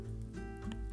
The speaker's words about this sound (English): sorry for the background noise. I'm kind of trying to roll myself a little joint here.